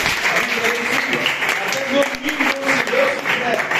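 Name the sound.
audience applauding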